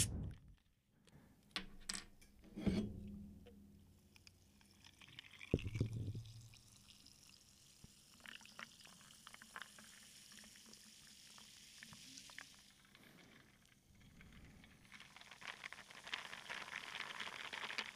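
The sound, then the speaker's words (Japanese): A highball being poured into a glass, with a couple of sharp ice-and-glass clinks early on, then a steady crackling fizz that swells louder toward the end. No one speaks. “そうだね今日はみんないないからちょっとぬるっとお酒でも飲みながら撮りますかちょっと待ってねよいしょハイボールで失礼します。”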